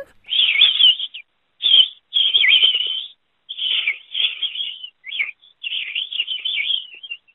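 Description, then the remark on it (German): A whistled imitation of a robin's song: bright, high, warbling phrases in several bursts separated by short pauses, fairly loud, with no talking. “Können Sie auch ein Rotkehlchen?”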